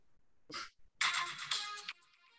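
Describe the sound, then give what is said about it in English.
A phone ringtone plays a bright, buzzy synth melody in quick, loud staccato notes after a short noisy burst, then trails off into a fainter tone. “I've taken a lot, a lot of pride in my choices for ringtones.”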